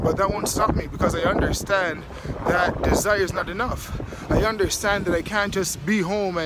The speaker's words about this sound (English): You guys can hear the wind right now. It's very windy, very cold, negative negative forty degrees Celsius.